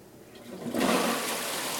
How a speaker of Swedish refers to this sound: samt dra i klosettsnöret så att han får se vattnet brusa ner.